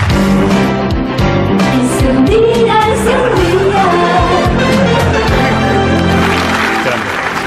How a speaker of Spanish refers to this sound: ¿Os acordáis de un día es un día de Ángel Casas, del gran Ángel Casas? Sí. Pues ellos hicieron su propia versión e incluso actualizaron la sintonía mítica. ¿Te acuerdas? Mira, mira, escuchémoslo la sintonía.